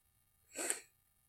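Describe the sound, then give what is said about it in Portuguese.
A single short sneeze, a quick breathy burst that swells and cuts off within half a second, fairly soft and heard alone against a quiet background. “Então vou ter que espirrar.”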